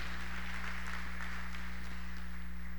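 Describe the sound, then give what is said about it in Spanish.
Church audience applause given to the Lord in the afternoon: a dense, steady patter of many hands clapping at low volume, with a constant low electrical hum beneath it and no voices. “Déselo al Señor ese aplauso en esta tarde.”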